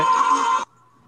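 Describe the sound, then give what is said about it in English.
An alarm sounds with a loud, buzzy, harmonic-rich electronic tone held steady for just over half a second, then cuts off abruptly, leaving only a faint lingering hum. No one speaks. “Sorry, that was my alarm to tell me it was time for the game to begin.”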